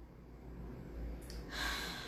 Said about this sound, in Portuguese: Respirando e percebendo quantas vezes durante o seu dia você para para respirar profunda e conscientemente.